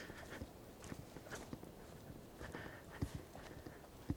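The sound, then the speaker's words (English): Steady footsteps on a dirt path at night with no moon, a winding, zigzagging path among oak trees and ferns: roughly two soft, scuffing thuds per second in an even walking rhythm, with a few slightly heavier steps near the end and a low background hiss. “I'm walking down this dirt path.”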